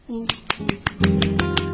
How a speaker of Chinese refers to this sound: 拍手